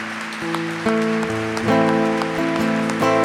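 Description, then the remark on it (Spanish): An audience applauds with steady, dense clapping, while sustained keyboard chords change every second or so underneath. No one speaks. “Dale fuerte el aplauso, porque Él se lo merece.”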